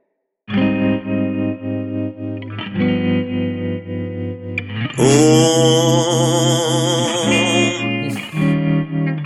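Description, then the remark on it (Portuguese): A sustained, heavily processed voice drones loudly in long held tones, thick with echo and effects, turning warbly and distorted midway before settling back into a steady hum. “e eco.”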